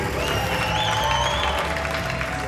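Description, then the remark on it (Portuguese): A crowd bursts into sustained applause for a performer coming onto the stage, dense steady clapping at a loud level throughout, with a few faint cheers or whistles riding over the top. “E agora no palco, o vosso aplauso para Candy.”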